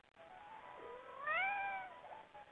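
A cat lets out a single drawn-out meow, rising then falling in pitch, clear against a quiet background.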